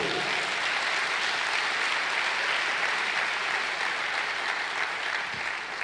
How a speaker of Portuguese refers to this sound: Um aplauso para Jesus Cristo. Um aplauso para Jesus Cristo.